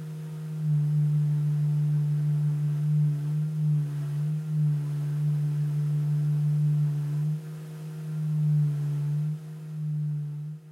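A large secondhand organ pipe from Góði hirðirinn, set up in the middle space and blown by an industrial vacuum cleaner, sounds a loud, steady low drone with a hollow, buzzy tone, holding one pitch for the whole clip with a few brief dips and wavers.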